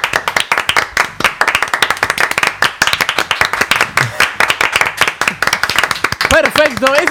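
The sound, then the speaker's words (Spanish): A crowd applauds with dense, rapid overlapping claps that stay loud and steady throughout, and a voice starts speaking over the clapping just before it ends. “ese, es el aplauso para nosotros por haber arrancado temprano.”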